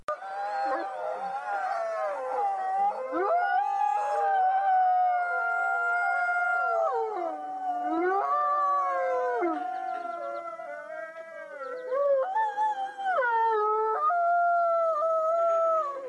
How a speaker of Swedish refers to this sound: Vi vaknade, eh, typ vart, varannan, var tredje timme så vaknade vi ju av ett, eh, att en hund började yla lite sådär halvt då började ju även alla andra 150 hundar yla.